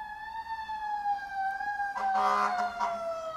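A siren of fire engine number 51 passes, its steady wail sliding slowly lower in pitch, with a louder, harsher blare bursting in partway through before it carries on.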